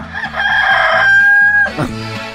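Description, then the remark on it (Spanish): A loud rooster crow rings out from an alarm clock, one long sustained cock-a-doodle-doo with a bright, slightly electronic tone over a low rhythmic backing. “Nada más ni nada menos que el despertador con el sonido de gallito para que se acuerde cuando andaba ya en el rancho.”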